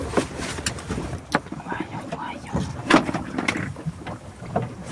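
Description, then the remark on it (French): Humpback whale song recorded underwater: wavering moans and short grunts rise and fall over a constant hiss and crackle of water, with sharp clicks scattered throughout. “La réponse de la baleine à bosse”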